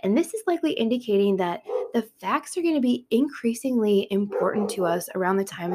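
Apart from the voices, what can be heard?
dog barking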